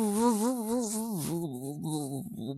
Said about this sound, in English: That, that was a kazoo. Didn't sound like any kazoo I've played. He must be a shitty kazoo player.